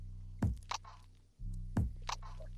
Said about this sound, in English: Forgive me as I sip on that coffee that is strong because we ain't had that much creamer. It's all good though. Feels like it's doing its job.